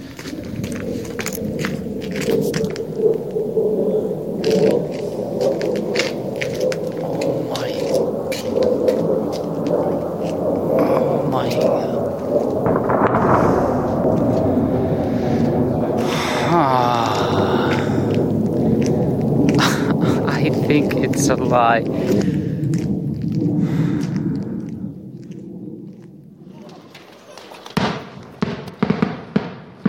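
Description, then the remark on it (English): A plane flying overhead above an area of destruction makes a loud, steady rumbling roar that holds for about twenty-five seconds before fading away, with a few sharp cracks and voices mixed in. “No, it's the plane. Oh my god, it's the plane.”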